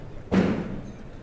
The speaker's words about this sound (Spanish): Ese sonido que se oye, ese golpeteo, es el de los cirios entrando en el carro un carro que tiene unos moldes arriba, unas eh, redondelas en donde van entrando todos los cirios dispuestos para ser enviados de nuevo a la cerería, para almacenarlos.